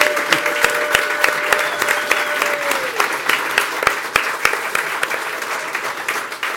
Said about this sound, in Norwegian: 17 år. Ja, du fortjener en applaus.